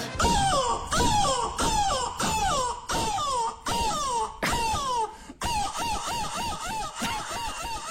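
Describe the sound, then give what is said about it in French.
A man's voice imitates a seagull, this year's winning entry at the world seagull-cry championship, letting out a rapid series of loud, shrill, wavering cries, about eight sharp squawks followed by a continuous warbling stretch, unaccompanied. “Ouais, début janvier, on vous a parlé du cri de la mouette, du championnat du monde de cri de mouette.”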